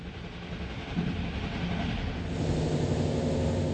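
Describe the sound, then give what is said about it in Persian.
A train rolls steadily along the tracks through the densely populated, industrial Ruhr region of Germany, a continuous low rumble with faint rhythmic clatter, growing slightly louder toward the end. No one speaks. “قطار از منطقه آباد و پرجمعیت رور رد میشه که یکی از مناطق مهم صنعتی است.”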